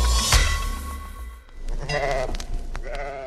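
A sheep bleats twice in quick succession, wavering and fairly loud, after a short stretch of muffled noise and a thump at the start.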